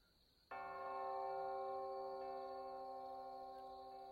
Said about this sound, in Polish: No, czasami jest tak, że przy pełnych godzinach dzwony biją, nie? Cisza. Nie. Biją. nią. Dzwonią, tak? Dzwonią. Mhm. Okej, okay, czyli bicie dzwonów nam się nie przewidziało.